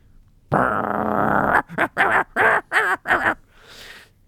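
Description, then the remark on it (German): A dog, the studio dog Hasso, growls: one loud, rough, sustained snarl of about a second, followed by four short, choppy growling bursts in quick succession, then a faint breathy trailing noise. “aber ich könnte dir unsere Studiodocke Hasso ausleihen. Der hat scharfe Zähne.”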